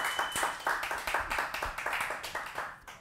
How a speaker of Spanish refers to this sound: un aplauso en casa Señor, vamos. Un aplauso ahí en casa.